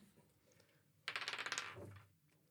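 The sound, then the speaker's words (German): A small die is rolled in a dice game and clatters across a hard tabletop in a quick burst of about a dozen rapid clicks that slow and fade over roughly a second, fairly loud, with no talking. “Wir machen das bei uns am Anfang immer mit einem Würfelspiel.”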